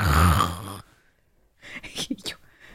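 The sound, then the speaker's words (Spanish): A voice imitates an old man snoring with one loud, rough, low rumbling snort, then a pause and a few breathy, hissing exhales, without any spoken words. “y yo, no, no, no, no, no, sí está roncando.”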